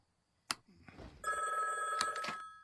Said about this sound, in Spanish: Es, esa malvada grabación de nuevo ha llamado toda la noche. Desconecta el teléfono.